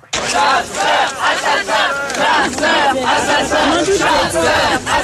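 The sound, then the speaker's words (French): A large crowd of protesters at a 1976 demonstration against hunting with hounds in the Oise, France, chants and shouts together in loud, rhythmic bursts, many voices blending into a dense, continuous roar. “Manifestation contre la chasse à cour dans l'Oise en 76”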